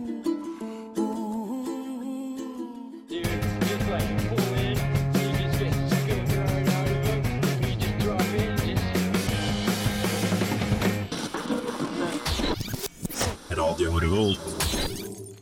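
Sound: song played on air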